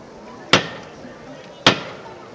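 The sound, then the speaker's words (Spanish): A procession float's knocker is struck twice by the foreman, about a second apart, each a sharp, bright metallic rap that rings briefly before fading into a low, steady background murmur. “cuando el capataz toca el llamador.”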